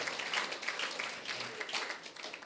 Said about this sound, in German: Gebt ihm mal nochmal einen Applaus. Halleluja.